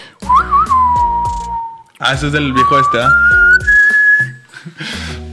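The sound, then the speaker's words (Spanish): A clear whistle traces a short five-note melody in long, held tones, while people talk over and around it. “Yo pienso que esos chiflidos se van a oír bien feos, güey.”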